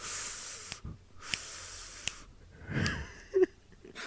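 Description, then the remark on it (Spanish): A voice imitates the sound a video game enemy makes when approaching, like decompressing air: two long, breathy hisses, each a couple of seconds, followed by a short wheezy exhale and a brief vocal squeak, fairly loud. “Escuchas como como aire descomprimiéndose, no sé cómo.”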